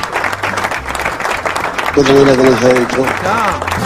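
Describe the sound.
An audience applauds with steady, dense clapping for a few seconds, while loud voices call out over it, growing more prominent toward the end.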